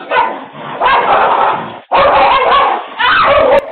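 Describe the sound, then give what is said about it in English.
A loud dog fight caught on a doorbell camera: a pit bull attacks a small dog, Max, with frantic barking, yelping and snarling in a chaotic, continuous scuffle, broken by a brief pause before erupting again. “But then her little dog Max comes out and all hell breaks loose.”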